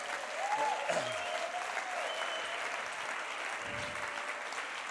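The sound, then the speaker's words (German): A church audience applauds a worship band's 20th anniversary, a dense wash of many hands clapping at an even level throughout, with a few faint whistles or cheers rising briefly above the clapping. “Gebt mal den Applaus dafür.”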